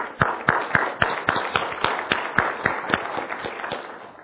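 A round of applause at a Sunday church service, in appreciation of a drummer playing his first Sunday, with sharp, steady claps repeating about every quarter second over a dense wash of clapping, holding an even, moderately loud level throughout with no voices.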